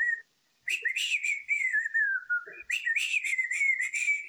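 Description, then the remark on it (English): A person whistles a quick, high melody imitating the whistle song from Disney's Robin Hood, sped up: a fast run of sliding and bouncing notes with a brief pause early on, clear and fairly loud with no talking. “Can you picture how the whistle song in Robin Hood goes?”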